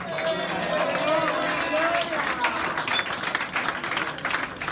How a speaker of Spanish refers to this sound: Y usted aplaudiera, dijera gloria a Dios.